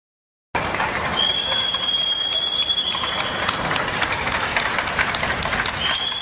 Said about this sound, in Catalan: Aquella mateixa tarda de Sant Jordi, a les 8 del vespre, mentre començaven els aplaudiments als sanitaris a milers de balcons, desenes de metges i infermers de Sant Pau, amb llàgrimes als ulls, van sortir a la porta principal de l'edifici per fer-ne